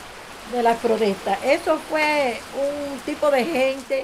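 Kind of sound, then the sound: nature, heavy pouring rain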